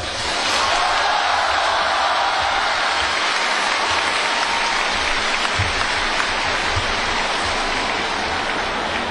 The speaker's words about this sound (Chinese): 所以接下来大家可以用一个热烈的掌声，谢谢易建东校长。